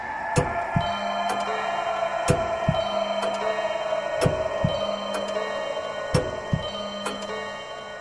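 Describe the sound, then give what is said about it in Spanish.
A muffled, hurried heartbeat of an old man, like a clock wrapped in cotton, thudding in steady paired beats about every two seconds, with dull low thumps over a constant hissing background and no voices. “En aquel momento, llegó a mis oídos un resonar apagado y presuroso, como el que podía ser un reloj envuelto en algodón.”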